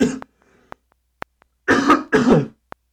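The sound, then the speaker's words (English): Two harsh coughs in quick succession, loud and throaty, with a short throat-clearing sound just before and a few faint clicks in the otherwise quiet gaps. “need to find a cough button too, I guess.”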